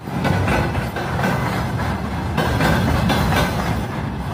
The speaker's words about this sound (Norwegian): gjøre lyden av et tog i Russland, et tog på vei til Ukraina. Det er lastet med gamle stridsvogner, T-62-vogner, som først kom i produksjon i 1961.